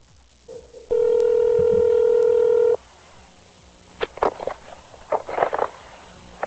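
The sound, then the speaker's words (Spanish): A short beep, then a loud, steady telephone tone holding for about two seconds before cutting off, followed by quieter scattered clicks and rustling as the call connects. “Voy a ir a una, mm, a una llamada que tengo por aquí bastante interesante”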